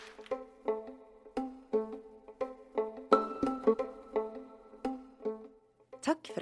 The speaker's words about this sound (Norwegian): Musikken du hører nå er komponert av Olav Våstad og Gaute Tønder